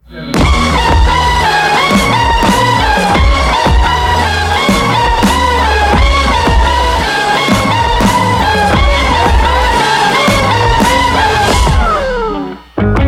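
A loud, dense rock song with gritty electric guitar over a steady driving beat, playing continuously for several seconds before cutting off abruptly near the end.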